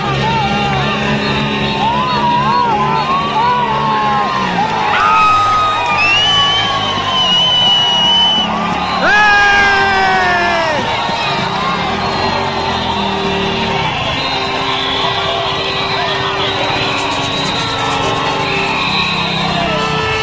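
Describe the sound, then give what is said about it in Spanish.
A loud, dense crowd of protesting educators and other workers' unions in central Caracas, Venezuela, shouts and cheers continuously, with rising whoops and yells cutting through a steady roar of many voices, energetic throughout. “Mientras se desarrollaba la protesta del gremio de educadores en el centro de Caracas”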